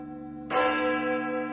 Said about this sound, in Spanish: Las campanas de la iglesia del pueblo sonaron a las seis de la mañana.